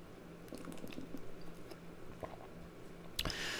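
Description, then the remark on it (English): Someone drinks coconut water: quiet, wet sips and swallows in a loose rhythm, with a brief sharper clatter near the end and no talking. “Coconut water break.”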